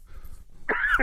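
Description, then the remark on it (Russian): One sharp sneeze, fairly loud, bursting out after a brief quiet moment and trailing off with a breathy rasp. “Будьте здоровы.”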